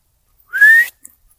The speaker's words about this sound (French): Fait que si je siffle comme ça, c'est parce que le chien, ça va trop loin.